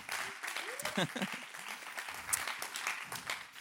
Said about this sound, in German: Applaus für euch, ICF Bern.